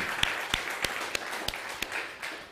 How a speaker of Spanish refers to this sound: Y hasta en Israel nos están viendo un fuerte aplauso a Israel también.